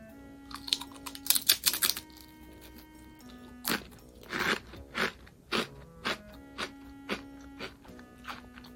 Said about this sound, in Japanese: では、ちょっといただいてみましょうか。米粉とポテトなので、見た目、軽い、ふんわり揚げみたいな感じです。では、咀嚼音、入ります。